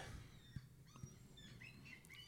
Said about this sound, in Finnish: Ei kato, se on se lokki. Lokit nauraa meille.